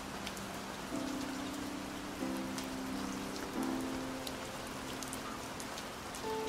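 A steady hiss of rain falls without pause on a rainy night, while soft sustained piano notes ring gently underneath. No one speaks.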